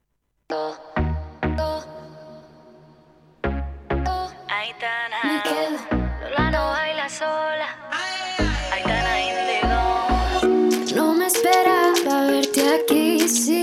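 A pop song plays on the radio with punchy bass-heavy drum hits, layered synths and a melodic vocal line, building from sparse beats into a fuller, steady arrangement.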